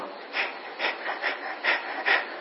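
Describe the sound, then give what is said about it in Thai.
A person imitates a cat's breathing with quick, rhythmic breathy puffs, about six in a row at an even pace. The breaths are soft, with no talking. “แต่เราไม่เคยผ่อนให้มันหายใจได้สบายๆนะให้มันหายใจเหมือนหายใจแมว”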